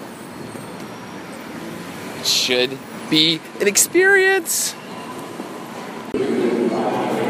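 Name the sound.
subway train running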